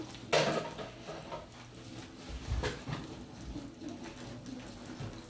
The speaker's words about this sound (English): I don't have any more bat, uh, like pancake mix to add to the batter, so I'm trying to add only enough water that it's perfect.